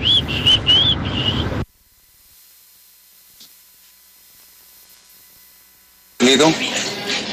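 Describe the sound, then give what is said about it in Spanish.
A loud mocking whistle: a wavering, high-pitched tune over noisy background, then several seconds of near silence before another burst of whistling with rising notes. “Hoy que es el día del chiflido, le quiero mandar un saludo a Martín Orozco Sandoval”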